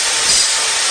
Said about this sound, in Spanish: Este es el ruido de las reformas.